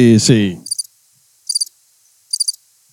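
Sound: crickets chirping sound effect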